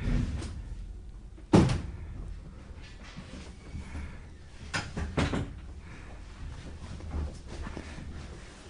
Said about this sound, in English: let's, uh, let's close the door.